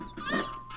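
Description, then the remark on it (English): A short burst of chicken clucking in a video game, from baby chicks grown into full-sized chickens, with a bright, slightly synthetic tone, fairly loud, one rising squawk in the middle and a softer cluck at the end, no talking. “And then now that we've collected all the baby chicks, they're graduating into being full sized chickens.”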